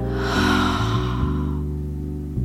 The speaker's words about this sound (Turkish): Derin nefes alalım hep beraber. Ağızdan ver.